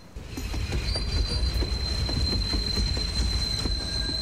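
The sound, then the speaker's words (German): A train rumbles steadily along the rails, heard from inside a compartment, with a sustained high metallic wheel squeal and faint rhythmic clacks over a heavy low-end roar, continuous with no talking. “Im Zug setzt sie sich in einem Abteil auf einen Fensterplatz.”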